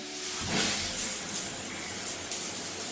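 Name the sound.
running shower water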